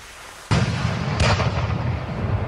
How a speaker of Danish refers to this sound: Så han går lidt ud for menneskemængden – og tænder sit bomberør. Han peger det op i luften, men det er først, da det første skud går af, at han opdager den katastrofale fejl.